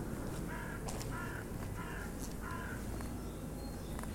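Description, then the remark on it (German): Outdoor ambience in spring on the Augustinergasse, a quiet street with few cars, with birds calling repeatedly, including harsh crow-like caws in a steady series of four, set against a broad, quiet background hum; no one speaks. “Und hier ist es auch schön ruhig, wenig Autos, viele Vögel”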